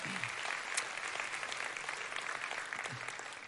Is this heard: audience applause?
yes